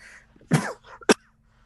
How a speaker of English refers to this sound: Excuse me. Uh, I do apologize, listeners. I just, for the last few weeks, I can't stop coughing.